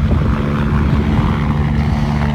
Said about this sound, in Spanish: Uno de ellos grave que fue trasladado en helicóptero a un hospital de la capital con quemaduras y traumatismos. Este es el sonido de la evacuación.